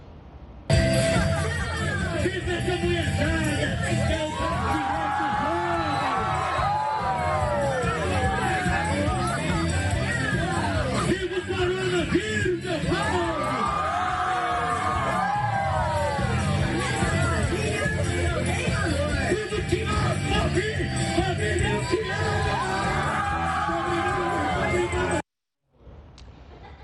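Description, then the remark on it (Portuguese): A loud, dense crowd at a festa junina (June festival) quadrilha dance party, many overlapping voices shouting and cheering continuously for about twenty-five seconds before cutting off abruptly, as the quadrilha's narrator shouts "Viva o coronavírus!" “…, que estava narrando a quadrilha, grita: Viva o coronavírus!”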